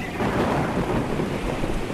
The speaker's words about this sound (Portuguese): sei que você está desconfortável aqui nesta tempestade, mas as coisas não estão tão ruins quanto parecem agora.